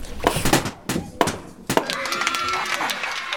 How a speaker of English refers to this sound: Here's another I Spy I see 100 balloons lined up on the ground. Are they there for a party? Oh no, I see a dog rushing towards the balloons and popping them one after another.